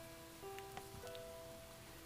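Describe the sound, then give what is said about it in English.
Steady, soft rain patters continuously across a surface, a dense hiss with scattered droplet ticks, while faint sustained tones hum quietly underneath. “This is this is rain, right? This is rain? Yes, it is rain.”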